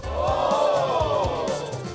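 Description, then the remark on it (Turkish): A crowd cheers loudly with a dense roar of voices, with rhythmic claps thudding underneath at a steady pace throughout, like a short stock applause effect. “Ben alkışı tekrar geri alıyorum Mehmet Ali.”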